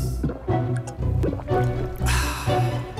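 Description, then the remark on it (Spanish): Cristalina returnable sparkling water spurts and fizzes out of a siphon in several hissing bursts, with bubbly gurgling and splashing between the sprays. “Prueba la nueva cristalina con gas retornable. Con su sistema de sifón, guarda las burbujas por más tiempo.”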